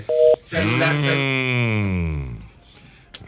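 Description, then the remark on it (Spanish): A short, loud electronic phone beep sounds once at the start. A long, wavering vocal sound with a slowly falling pitch follows right after it, then a faint click near the end. “Celular, celular, celular, hermano, celular.”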